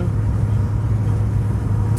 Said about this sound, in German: Hier ist ganz schön Verkehr auf der Straße, muss ich sagen.